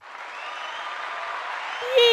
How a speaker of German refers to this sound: Mein neues Mischpult ja. hat ein jubelndes Publikum im Hintergrund.